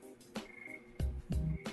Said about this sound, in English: Yes, those are crickets. What are, I was gonna say. yeah, I've I've got my window open. So, actually, no, it's not crickets. It's tree frogs.